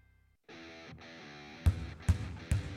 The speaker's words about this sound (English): That's the sound of winter in one of the Forest Youth Athletic Association's most popular sports, basketball.